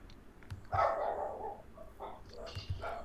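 Several neighbours' dogs in a residential area of houses bark, a handful of irregular, overlapping yaps over about three seconds, fairly faint, with no one talking.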